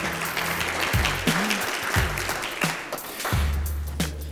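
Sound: audience clapping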